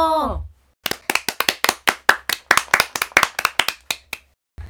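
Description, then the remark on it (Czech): Quick, steady hand clapping of people applauding wildly after a clown's acrobatic act, about eighteen sharp claps in a brisk even rhythm, fairly loud, right after a brief breathy vocal sound. “Tleskali rukama jako zběslí.”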